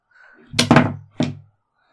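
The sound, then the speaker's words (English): A locked door is tried, giving a quick pair of heavy wooden thunks and then a third rattling thud, fairly loud with a short low ring after each, no voices. “You go up to door A. It's also locked.”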